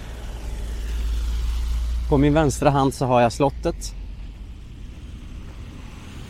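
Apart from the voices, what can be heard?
city street traffic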